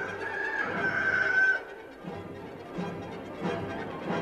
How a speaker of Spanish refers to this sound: De nuevo negó Pedro y enseguida cantó el gallo.